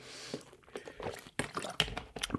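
Someone chewing a coconut protein bar: a run of irregular, crunchy and slightly sticky bites and mouth noises, moderately loud, with no talking.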